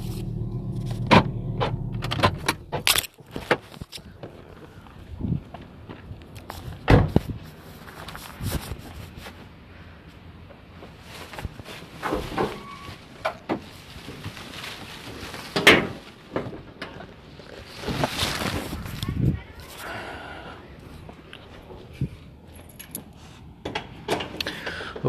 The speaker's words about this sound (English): okay i'm going to turn off the car and go back inside hold on